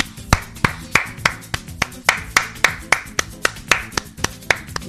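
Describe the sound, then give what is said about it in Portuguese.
Steady rhythmic hand clapping, about sixteen sharp, crisp claps at an even brisk pace, with a faint low tonal backing underneath and no voices. “Palmas para ela, palmas para ela.”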